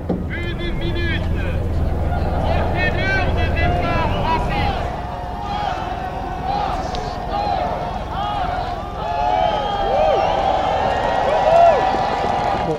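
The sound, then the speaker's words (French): A busy, continuous rumble of many boats setting off together on a river at the start of a race, as the sun is just rising, with churning water and a crowd of voices calling and chattering throughout, the noise holding steady and swelling slightly near the end. “C'est assez impressionnant de voir autant de bateaux agglutinés sur la scène. Tout le monde s'élance petit à petit alors que le soleil, lui, euh, se lève tout juste.”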